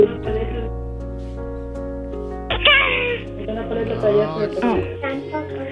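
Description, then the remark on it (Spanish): A child, asked to make a kitten's noise, imitates a kitten's meow with drawn-out, wavering mews that rise and fall in pitch over a steady, humming tonal background. “¿puedes hacer el ruido de un gatito?”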